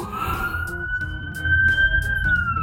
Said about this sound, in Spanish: está pasando una ambulancia por ahí o disculpen.